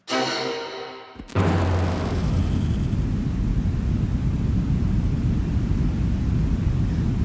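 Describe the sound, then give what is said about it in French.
A brief tonal, droning sound cuts off, replaced by steady, loud white noise that rushes on unchanged for several seconds with a heavy low rumble underneath. “Profitez bien de ce bruit blanc parce qu'il est en passe d'être supprimé de Spotify.”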